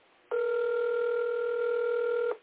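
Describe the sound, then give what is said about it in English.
A single steady ringback tone of an outgoing phone call, lasting about two seconds, loud and thin as if heard through a phone line, with no voices. “I don't like when they don't answer my phone calls.”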